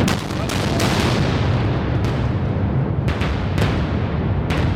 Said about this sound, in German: Die Dynamitstangen explodieren nacheinander, damit es die Menschen im Innsbrucker Ortsteil Igels nicht aus den Stühlen hebt. Nur 500 Meter über uns. Wir sind ungefähr genauso weit weg vom Ende des Bohrlochs im Brenner Basistunnel tief im Berg.